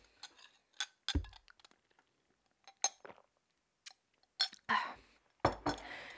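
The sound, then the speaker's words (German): Several sharp glassy clinks and taps, irregularly spaced, with a couple of louder knocks as an emptied drinking glass is set down, with no talking. “Ja, und damit wäre auch mein Glas heute wieder leer.”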